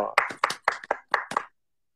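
A single person claps hands about six or seven times in a quick, slightly uneven rhythm to welcome a guest, fairly loud, then stops, leaving silence for the last half second.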